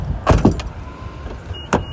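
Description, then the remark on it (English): Someone climbs out of a car: a couple of quick clunks and rustles with a faint jingle of keys, then a short pause and a final solid thump. “I'm getting out the car right now, going to the park.”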